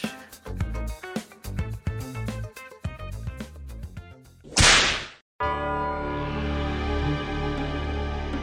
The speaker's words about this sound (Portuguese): Deixa eu dar uma chicotada aqui pra gente poder voltar pro tema. Então, ouvinte, se prepara aí que hoje é noite de lua cheia e o chicote vai estralar nesse podcast.